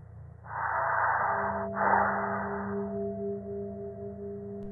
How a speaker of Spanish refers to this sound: solo se escuchaba una respiración. Esperé y duré fácil más de un minuto esperando a que me contestaran.